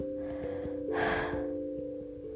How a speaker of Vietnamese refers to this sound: nóng quá mình không có mic thế là mình định chui vào chăn để nói với chuyện với mọi người nhưng mà thật sự là mình không thở được mình hết cả hơi luôn